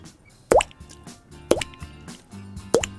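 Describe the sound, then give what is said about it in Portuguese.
Three water drops fall into a bucket about a second apart, each a sharp, resonant plop with a rising ring, clear over a faint low background. “Parece uma gota de água aqui num balde.”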